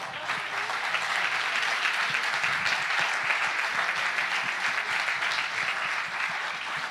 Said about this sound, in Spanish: Si le va a dar un aplauso,